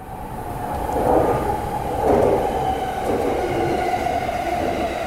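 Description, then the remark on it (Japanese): A Yamanote Line outer-loop commuter train bound for Shinagawa and Shibuya, with Yurakucho as the next station, rolls steadily along the rails, a continuous low rumble with a faint high squeal of wheels and two swelling surges of noise, heard from inside the car with no voices. “この電車は山手線外回り品川渋谷方面行きです次は有楽町有楽町お出口は左側です”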